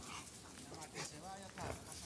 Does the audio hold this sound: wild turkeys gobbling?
no